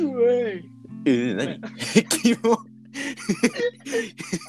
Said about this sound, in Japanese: くしゃみしたわ。収録中にあるまじきうえごめん。